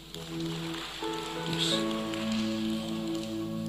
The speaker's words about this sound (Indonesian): Tepuk tangan yang keras.